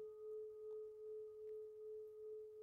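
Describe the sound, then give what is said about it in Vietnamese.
A meditation bell rings with a sustained, pure humming tone that wavers in a slow, gentle pulse, heard alone and fairly soft with no voices. “Tôi để cho tiếng chuông ngân vang trong trái tim mình.”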